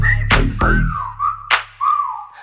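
A human whistle glides downward in pitch, then holds a few sustained notes, over a booming bass beat with sharp percussive hits.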